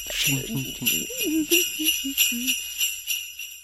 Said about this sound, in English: put in the jingle bell sound.